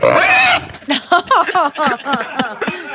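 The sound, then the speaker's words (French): A pig oinks loudly, starting with a long, high squeal and then breaking into a quick series of short, pitch-sliding oinks and snorts. “C'est cochon apprécie pas ça.”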